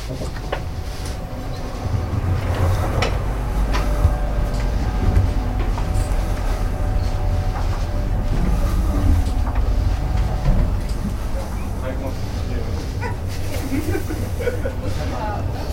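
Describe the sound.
Steady low rumble of a moving train heard from inside a carriage, with continuous rattling and clatter, faint tonal hums, and indistinct voices murmuring in the background.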